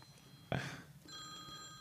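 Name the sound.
telephone ringing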